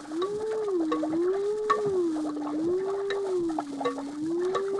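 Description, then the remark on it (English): Brain delta waves rendered as sound: a continuous low electronic tone slowly rising and falling in pitch, warbling eerily over a bed of faint crackling static, with no voices. “if the brain responded with the same pattern of sound each time I issued the command, it would prove that I'd succeeded in communicating with the brain, wouldn't it?”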